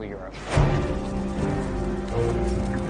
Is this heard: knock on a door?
no